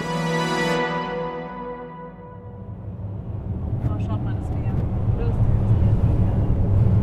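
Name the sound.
car driving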